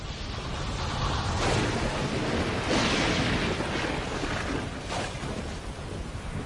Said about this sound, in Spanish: La lluvia cayó, formando charcos, lagos y al final los océanos.